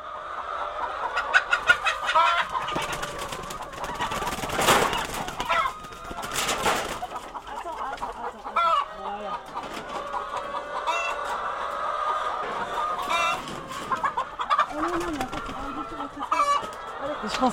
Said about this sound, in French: pas que j'allais m'attacher à hum, un oiseau. Je suis attachée maintenant au, bruit, à l'odeur, euh, à leur comportement, à ce qu'elle euh, donne comme ton à une ferme. On n'en a pris que 700 cette année, mais avant on en avait 1000.